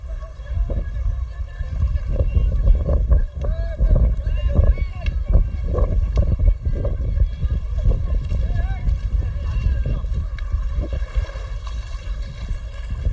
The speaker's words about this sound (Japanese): 正解は海ですわパチパチえっと実は今お台場の海に来てます